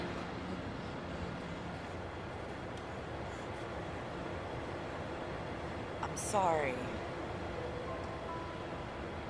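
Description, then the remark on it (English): A train rumbles steadily in the background as it pulls away from a station, with a brief high metallic squeal partway through. A person speaks briefly over the noise. “Train's leaving, man.”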